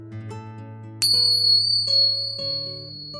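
Soft, ringing bell chimes struck several times in a slow, calm sequence, each tone lingering and overlapping the next, with one brighter, sharper strike partway through. No voices.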